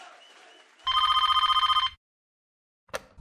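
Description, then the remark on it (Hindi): A single loud burst of phone ringing as a call is placed to the speaker's dad at the Red Indies Radio Festival, a rapid warbling trill lasting about a second, then silence broken by a short click as if the line picks up. “अच्छा और अब टाइम आ गया मेरी डैड को फोन करने का”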